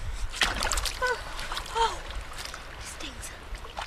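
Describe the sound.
Water splashes and sloshes steadily as people jump into the ice-cold Sierra snowmelt of the San Joaquin River, with a sharp splash early on and brief excited voices calling out over the churning water.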